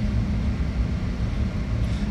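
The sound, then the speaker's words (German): A steady, loud low engine drone of a small airplane in flight, flying past Hangelar toward Siegburg, continuous with a constant rumbling hum and no voices over it. “Man braucht durchaus viel Fingerspitzengefühl, um ein Flugzeug zu fliegen. Ich fliege vorbei an Hangela.”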